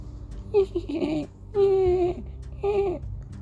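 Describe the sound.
A person imitates a deer's call with three drawn-out, whiny cries, each about half a second long, separated by short pauses. The cries are clear, with nothing behind them.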